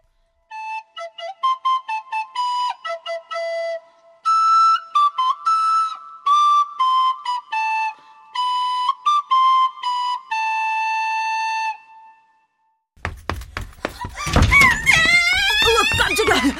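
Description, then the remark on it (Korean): A high, reedy pipe plays a lively melody of short, separate notes for about twelve seconds; after a brief pause, a loud, noisy burst of swooping squeals follows. “뭐, 그 피리나 부는 음악가?”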